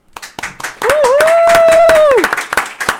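Audience applause welcoming a guest who talks about ufology, a burst of dense, irregular clapping lasting a few seconds, with one long, steady vocal whoop or cheer rising over the middle before fading back to scattered claps.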